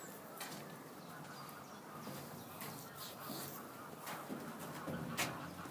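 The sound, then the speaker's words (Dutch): Two wild geese call in scattered honks over a steady, noisy outdoor background, with a few sharper cries standing out briefly; no one speaks. “Twee... Ganzen. Wilde ganzen?”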